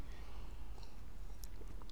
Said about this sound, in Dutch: Sorry, een slokje water.